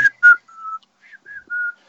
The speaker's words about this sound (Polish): powiedział, że to jest słuchaj, jego top 5 odgłosów w internecie, to gwizdanie